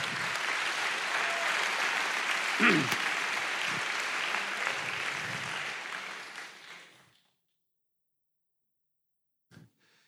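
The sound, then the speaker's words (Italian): A crowd applauds steadily with dense, continuous clapping for about seven seconds, then fades out into silence, followed by a brief low thump near the end. “Facciamogli un applauso perché questa è la grande potenzialità del patto.”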